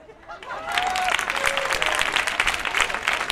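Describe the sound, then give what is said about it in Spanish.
A crowd bursts into steady, dense applause that swells within the first second and continues at full strength, with a couple of faint whistles or cheers rising briefly over the clapping. “este aplauso que acabas de escuchar es para ti”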